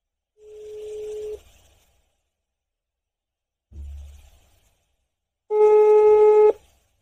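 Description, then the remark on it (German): Telephone dialing tones as a call is placed to a co-driver from a well-known car race in America: a steady mid-pitched beep lasting about a second, a low thump, then a louder, harmonically rich tone sustained for about a second. No one speaks. “Ich habe entschlossen, gleich mal einen Beifahrer von diesem Rennen anzurufen.”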